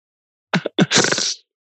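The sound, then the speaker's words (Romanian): A single loud sneeze: two short sharp intakes followed by a broad, hissing burst that fades out after about half a second, with silence around it. “Sănătate”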